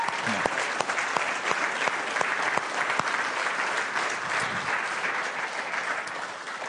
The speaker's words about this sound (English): So even though Derek's not here, you might watch this back. Can we just honor Derek this morning and, give it up for his leadership?